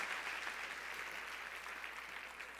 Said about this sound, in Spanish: Ay, sí, ese es el aplauso para tu padre.